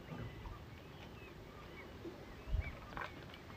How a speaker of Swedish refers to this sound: Jag sitter på en brygga. Kanske kan du höra mitt kluckande ljud av vattnet.